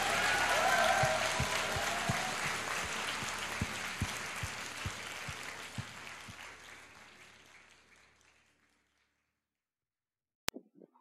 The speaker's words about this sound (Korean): 아들이라 아버지 되시는 하나님께 우리를 사랑한다 하시는 하나님께 큰 박수를 한번 보내드립니다.